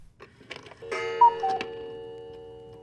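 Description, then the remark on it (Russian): A few soft clock ticks, then a single resonant chime strikes and rings out, its bright metallic tone slowly fading over the next couple of seconds, as the clock strikes one o'clock at night. Clear, no voices. “Когда часы пробили час ночи, мужчина откинул одеяло, будто уже ждал этого времени.”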